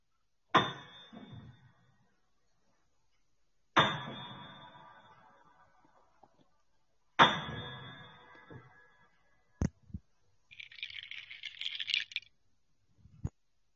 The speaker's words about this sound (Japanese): これからピアノの音が3回鳴りましたら体験談をお話ししますので、ホラーやオカルト系が苦手な方はこのままラジオをお切りください。